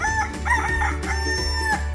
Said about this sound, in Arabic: وبعد ان ناما وقبل بزوغ الفجر استيقظ الديك وتذكر انه ما زال بالمزرعه ويجب عليه ان يوقظ الفلاح فصاح الديك